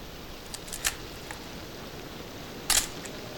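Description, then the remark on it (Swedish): A camera shutter clicks sharply a couple of times as a souvenir photo is taken of a group of women posing, with a softer click first and a louder, crisper snap near the end, over a quiet, steady background hiss. “När bilden är tagen”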